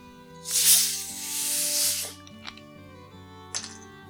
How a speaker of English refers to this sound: Now, we are going to add just another splash, this time of soda water. This is optional and depends on how you like it.